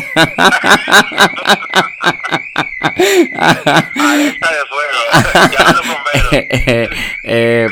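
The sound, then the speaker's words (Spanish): A neighbour's alarm sounds continuously with a steady, slightly wavering high tone throughout, loud, heard from a home living room while people talk and laugh over it. “Se activó la alarma.”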